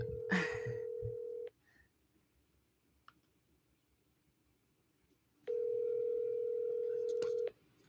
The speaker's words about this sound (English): Pick up the phone, dude.